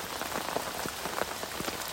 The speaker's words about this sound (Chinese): 听到那个雨声很舒服啊，就觉得洗涤一下啊